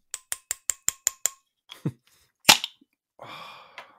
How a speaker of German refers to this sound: Ich äh, mache ein Bier auf, du auch? ja. Schönes Urkassler, bist du dabei? Ja, habe ich schon offen.